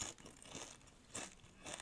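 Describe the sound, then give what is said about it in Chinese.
Crisp crunching of a triangular multigrain tortilla chip being bitten and chewed, with several sharp, bright bursts at an irregular rhythm, fairly quiet overall with no talking. “好，这是三角形的形状。刚才哎被我咬一口了，我现在再再把它吃完好了。”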